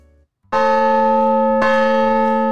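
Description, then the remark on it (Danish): Church tower bells in Gram ring out loudly after a church service, two strong strikes about a second apart, each leaving a rich, sustained metallic hum with layered overtones that carries on without fading. “Johannes han ringer lige ud fra gudstjeneste her”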